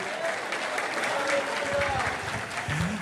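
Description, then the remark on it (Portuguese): An audience applauds steadily for several seconds to glorify the name of the Lord, dense overlapping clapping with a murmur of voices and cheers mixed in, at a constant level. “Se você crê, recebe, aplauda e glorifique o nome do Senhor.”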